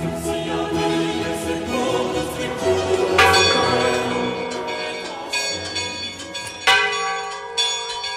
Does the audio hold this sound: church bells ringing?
yes